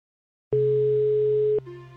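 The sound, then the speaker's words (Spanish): A single steady electronic telephone ringback tone of an outgoing phone call sounds for about a second, clear, then cuts off into a quieter, different hum. No voices. “A Loreto la llamo por teléfono.”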